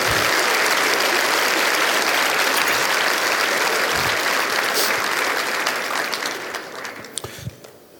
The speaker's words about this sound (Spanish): Vamos a darle fuerte el aplauso al Señor.